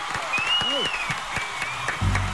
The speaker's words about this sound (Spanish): Un aplauso.